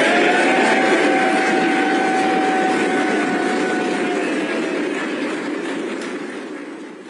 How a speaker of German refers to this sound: Naja, das, was wir dort gehört haben, das ist die konservative Unterhausfraktion gewesen, nachdem Sir Graham Brady, der so eine Art Vorsitzender der